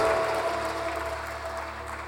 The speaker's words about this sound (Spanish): Dale un aplauso.